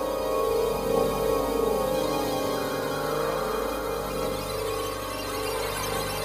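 A powerful electrical hum drones steadily and loudly, filling a room, thick with layered buzzing overtones that waver slightly, with no voices over it.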